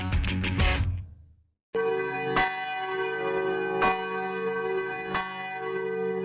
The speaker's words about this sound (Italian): Trentanove rintocchi, uno per ogni anno della sua vita. L'America onora così Martin Luther King, il profeta della non violenza, assassinato il 4 aprile del 1968 a Memphis, in Tennessee.